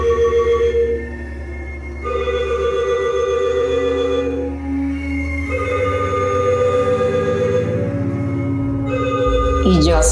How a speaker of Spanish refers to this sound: Pusimos el teléfono en la cuna y él estaba conmigo en la cama. Entonces, resulta que, digamos, 11 de la noche, el teléfono empezó a sonar solo